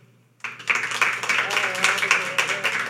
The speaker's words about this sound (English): All right, so we're gonna turn it over to you guys. Some celebrities are fit to run for president. Will you please clap if you agree?